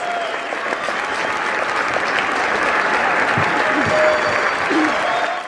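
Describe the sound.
Steady audience applause fills the whole stretch, a dense, continuous patter of many hands clapping at an even loudness, with a few faint voices mixed in underneath.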